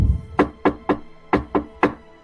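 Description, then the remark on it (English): Five sharp knocks on a door in two quick groups of three and two, clear, with no voices. “there is a slight”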